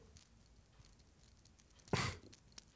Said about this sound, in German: Ich habe Ohrringe drin, die haben Glocken dran.